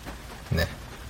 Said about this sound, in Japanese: そして、降り続く雨。ね。錬金の最終日にふさわしい、そんな雨のような気がします。